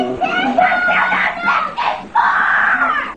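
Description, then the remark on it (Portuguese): A young boy opening a present shrieks with excitement in long, high-pitched bursts, loud, his voice rising and breaking into gleeful squeals across several breaths. “Ele tava igual o menininho abrindo presente lá, ó.”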